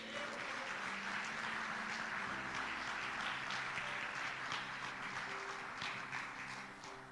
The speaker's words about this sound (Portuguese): Querido, viver mover de Deus é viver uma nova história. Você podia aplaudir Jesus por isso?